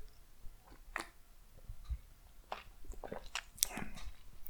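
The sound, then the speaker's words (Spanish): Quiet mouth sounds of someone sipping and swallowing coffee: a series of soft wet clicks, slurps and gulps spread over a few seconds, with no talking. “Pausa para trago de café.”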